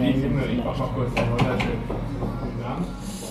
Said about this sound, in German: Aber ah, warte mal, habt ihr das gehört? Dieses Klopfen auf die Holztheke mit dem Schnaps? Hört noch mal hin. Erkennt ihr das? Das ist der Klang der Männer im Dortmunder kurz bevor sie verschwinden. Klopf, klopf und puff, weg.